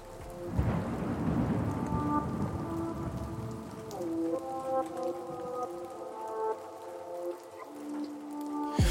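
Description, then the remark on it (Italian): Steady rain hisses throughout while a deep roll of thunder booms near the start and rumbles on, with faint sustained melodic tones drifting over the downpour. No one speaks. “Io direi di, di, partire subito con eh, roba forte, energetica e propongo di lanciare la seconda pioggia.”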